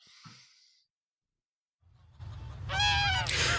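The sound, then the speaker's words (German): Danish fattening geese cackle and honk in a noisy flock kept in the open air on a farm on Rügen, Germany, the calls rising after a short pause with a low rumble beneath, getting louder toward the end. “Sie hört man schon von weitem schnattern. Die dänischen Mastgänse und Maladenenten hier unter freiem Himmel auf Rügen.”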